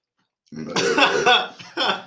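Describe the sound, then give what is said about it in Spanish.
A loud burp, rough and raspy, rumbling for over a second before a short second gust closes it out. No talking, just the belch on its own. “Espera, Espérate, vato, quiero eructar.”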